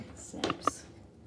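A battered old suitcase is opened with a couple of quick, sharp clicks, like its latches snapping, followed by a soft scrape. It sounds quiet, with no one talking.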